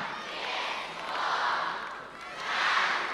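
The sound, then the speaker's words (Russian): A large audience at a Christmas show shouts a greeting together in unison to everyone watching across the country, two loud, sustained collective yells, the second swelling after a brief dip between them. “Давайте все вместе несколько раз поздравим всех, кто нас смотрит.”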